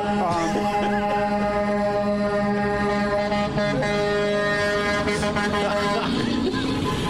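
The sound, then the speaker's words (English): A loud, sustained truck horn blares steadily for several seconds, its rich, harmonic drone holding a constant pitch with a slight shift near the end, over a busy background hum. “The truck horn.”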